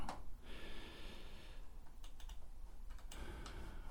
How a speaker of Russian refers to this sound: Напишу в поиск Месопотамия на карте. Сегодня одной рукой печатаю. Второй микрофон держу.